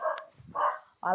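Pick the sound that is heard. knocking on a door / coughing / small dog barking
small dog barking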